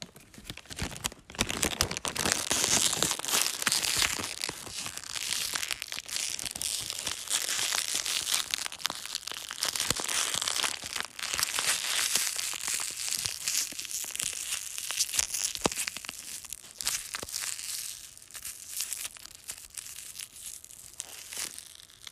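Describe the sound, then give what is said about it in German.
Crinkling and crumpling of a thin ice cream wrapper, a dense stream of sharp crackles and rustles that continues steadily for about twenty seconds with no talking. “Das war irgendein Eispapier oder so.”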